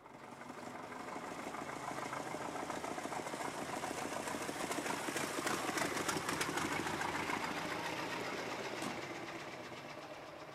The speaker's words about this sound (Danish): Der kom en gammel bil kørende ned ad vejen.